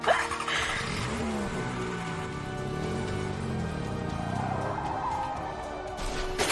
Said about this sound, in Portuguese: Não, é simples, é só ligar um carro e deixar ele embora.